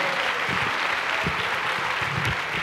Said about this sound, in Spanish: Dale un aplauso a Cristo por ese equipamiento, amado hermano.